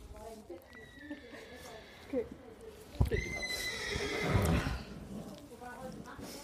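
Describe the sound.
A horse whinnies in several drawn-out, high calls at an equestrian competition, with a sharp knock partway through and a muffled clatter of hooves, set against a busy outdoor background with faint voices.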